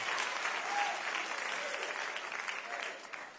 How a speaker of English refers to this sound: Oh, if you believe that, you ought to clap your hands unto the Lord and shout with the voice of triumph.